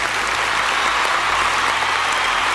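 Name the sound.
applause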